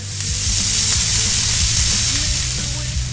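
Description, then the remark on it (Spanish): Meat sizzles loudly and steadily on a charcoal grill, a continuous crackling hiss over about three seconds, with a low humming tone running underneath. “y buscar cualquier pretexto para encender el carbón, echar la carne al asador”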